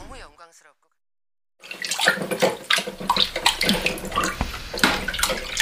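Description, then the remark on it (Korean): Water runs steadily from a tap while dishes are washed, with occasional clinks and splashes. A short burst of speech comes first, followed by a brief silence before the running water begins. “설거지 내가 해줄게.”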